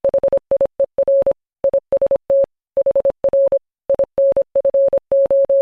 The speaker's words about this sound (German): Hier ist HR Info, heißen diese Funksignale. Das war nämlich Morsesprache.